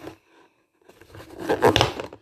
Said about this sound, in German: oh mein Gott, hier ist Plastik noch und jetzt können wir es öffnen. Oder auch nicht.